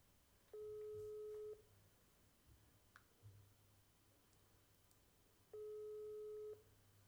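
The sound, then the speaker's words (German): A WhatsApp outgoing call ringing tone: two steady electronic beeps about a second long, spaced several seconds apart, clear and prominent over a quiet low hum with faint clicks between them. “Nein, WhatsApp.”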